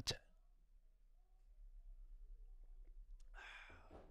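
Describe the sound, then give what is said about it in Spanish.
A small click, then quiet, then a brief breathy slurp near the end as someone takes the last sip of a drink. No one speaks. “Ya está, el último trago. Estaba muy bueno.”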